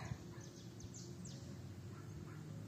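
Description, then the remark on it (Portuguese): A bird about 30 cm long, with a white head, a black stripe over the top of its head and a beak about 7 cm long, in a town square, gives a handful of quick, high chirping calls in the first second and a half, fairly soft against a steady low outdoor rumble, with no one speaking. “Mas bem aqui na minha frente tem um pássaro muito bonito que eu não sei o que ele é.”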